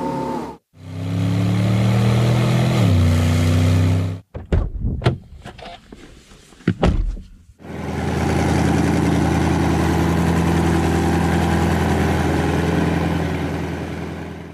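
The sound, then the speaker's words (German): A car engine runs loudly, its pitch climbing briefly, then a few sharp thunks like doors closing before the engine settles into a steady, rumbling idle. “Das war alles ein Auto.”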